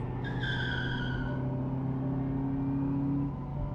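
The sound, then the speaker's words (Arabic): A car accelerates hard as the gas pedal is floored right after starting: the engine roars steadily while tires let out a high, sliding screech that fades after about a second, the loud motor hum continuing underneath until it drops off near the end. “بس أنت أول ما العربية تدور جيب دواسة البنزين في الأرض”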